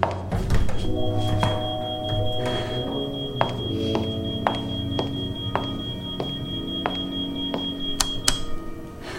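alarm

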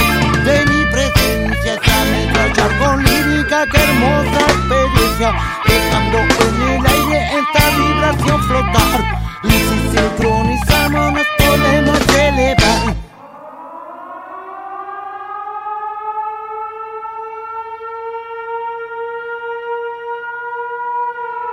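song

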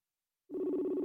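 telephone ringing

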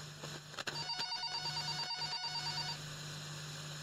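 telephone ringing

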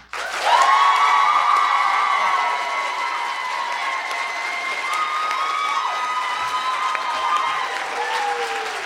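audience clapping and cheering

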